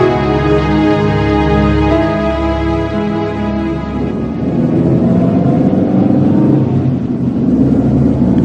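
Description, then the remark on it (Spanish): A steady car engine drone with strong low harmonics as the car cruises toward a small coastal port, shifting to a rougher, noisier rumble midway as the motor revs and the ride changes; loud, no voices. “Mientras viajábamos en coche en dirección al pequeño puerto costero donde vivía el testigo”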